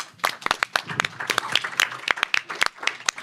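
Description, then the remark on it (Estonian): An audience claps with steady, overlapping handclaps that form a lively burst of applause after a speaker's presentation, moderately loud, with no talking over it. “aitäh, Birgit, aplaus”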